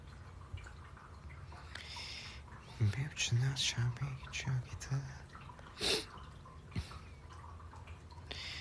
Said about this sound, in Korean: 물소리 쿠키 물통이에요 쿠키 물소리 물소리가 아니라 물통 물소리랑 합쳐졌네